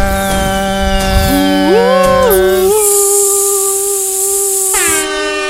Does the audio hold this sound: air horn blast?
yes